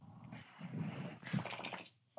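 A small female dog growls and whimpers in one continuous two-second burst, rising and falling in pitch, with no one talking over it.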